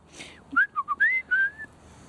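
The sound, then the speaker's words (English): A person whistles a quick run of about five short notes, a few brief chirps followed by longer sliding, upward-bending tones, fairly clear with no talking. The whistling is meant to call a wild bird named Jeffrey that lives in a tree. “I can't whistle today.”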